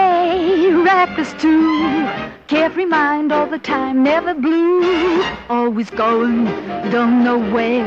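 A woman sings a lively, upbeat jazz tune, her first song in a film, with bright vibrato on sustained notes, her voice loud over a brisk band accompaniment, phrases coming in quick bursts.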